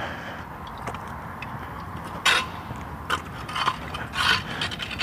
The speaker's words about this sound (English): Speaking of city workers, the guy edging the lawn here by the parking lot.